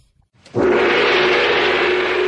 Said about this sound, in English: Ah, by the sound of the gong, it must be time for mystery movie moment.